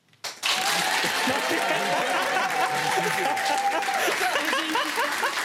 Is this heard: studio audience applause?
yes